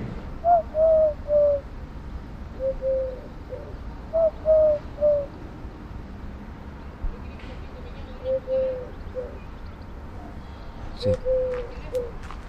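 A male Eurasian collared dove cooing from a treetop in a series of low, hollow three-note phrases, repeated several times with pauses between them, clear above a soft background hum.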